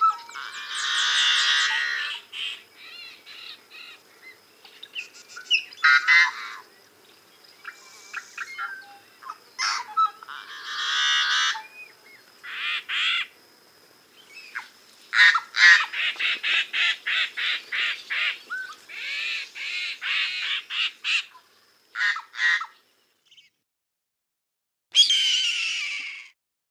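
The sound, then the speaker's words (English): Harsh, raspy yellow-headed blackbird calls, loud, come in bursts at Ridgefield Refuge, west of the Cascades: grating screeches, then a rapid run of clipped buzzy notes, and a final rasp after a short pause. No voices. “Ridgefield Refuge is one of the most reliable places to see nesting yellowheads west of the Cascades.”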